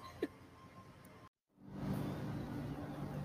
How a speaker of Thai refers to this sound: ค่ะ ก็เนาะเครื่องบินลงนะคะ ก็เป็นธรรมชาตินะคะ